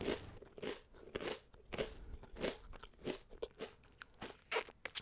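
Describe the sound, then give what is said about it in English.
Someone eating ice cream into the mic, with about ten crisp, crunchy bites and chews in a steady, uneven rhythm. No one speaks. “Me having this ice cream right now is resistance.”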